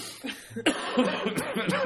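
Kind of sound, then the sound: human body sound, cough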